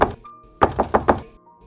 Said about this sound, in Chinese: 呃，一八四九年十月十七日夜里，玛利亚尼夫人突然被一阵激烈的敲门声惊醒。